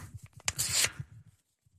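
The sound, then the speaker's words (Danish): Sheets of paper rustle and crinkle up close for about half a second, with soft handling bumps before and after as they are passed along. “Se her får I lige nogle papirer her, hvad jeg ser.”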